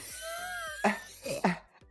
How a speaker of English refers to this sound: Do a little cough.